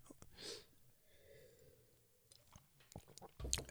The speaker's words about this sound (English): Let me take a real quick sip again.